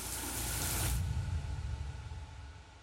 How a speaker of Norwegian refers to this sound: Neste morgen sto Wolfgang tidlig opp og hoppa rett i dusjen